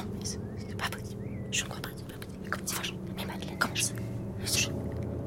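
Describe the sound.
Hushed whispering voices of parents in the living room, quiet and muffled, with soft sibilant bursts rising and falling over a low background hum for several seconds.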